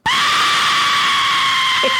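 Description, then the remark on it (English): A loud, piercing 3D-printed death whistle, blown into and modulated, shrieks in one sustained, steady scream for about two seconds, harsh and breathy with a shrill, unwavering pitch, heard alone. “get some just absolutely badass screams out of these things.”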